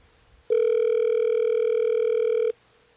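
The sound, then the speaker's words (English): A single steady electronic phone tone sounds for about two seconds as a call is placed, loud, then cuts off abruptly, with near silence before and after and no voices. “just stay quiet while we're trying to get her on the phone, and we'll do the talking.”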